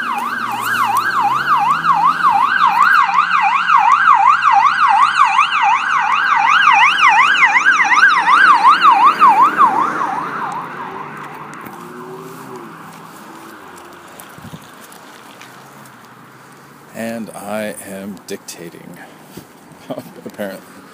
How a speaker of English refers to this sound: The ambulance is loud.